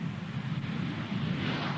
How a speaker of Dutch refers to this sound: fantastische vliegtuigen, die mirages, nietwaar